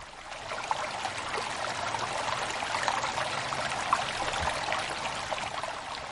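A steady stream of flowing water babbles and rushes continuously, moderately loud, with a bright, even texture and no voices.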